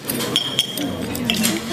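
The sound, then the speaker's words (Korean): Dishes clink against a table a few times in quick succession, light ringing taps of porcelain and cutlery, as a waiter sets three plates, including a steak, down on a table before two diners, with a faint background murmur of voices. “종업원은 아내와 내 앞에 접시를 내려놓고 아내와 나 사이에 나머지 접시를 내려놓았다.”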